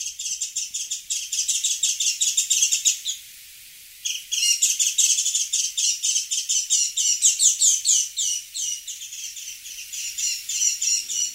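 Dense, rapid high-pitched chirping and twittering song of Japanese white-eyes, nearly continuous apart from a brief pause, loud, with no voices.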